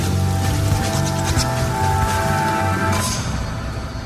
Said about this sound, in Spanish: Llueve.